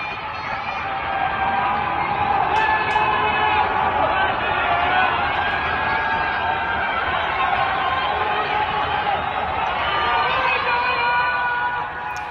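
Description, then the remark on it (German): Many residents in China, locked in their apartments during the coronavirus outbreak, shout and call out together into the night, including that Wuhan is strong; a continuous, echoing chorus of yelling, sustained and fairly loud throughout with no single clear speaker. “Und so eingesperrt schreien sie ihre ganze Verzweiflung und ihre Angst einfach in die Nacht.”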